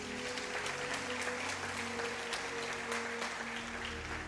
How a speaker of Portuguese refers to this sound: Aplauda o Senhor Jesus.